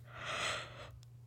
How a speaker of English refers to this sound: I'm gonna yawn, sorry.